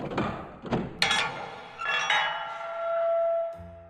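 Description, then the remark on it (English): The heavy door to Aunt Kitty's room opens with a few knocking thumps, then a long, steady, high-pitched hinge creak that rises and holds before a dull low thud ends it. “Huh, that's one heavy door.”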